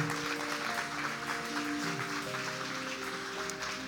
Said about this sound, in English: Come on, church. Let's give them a big round of applause. God bless you guys.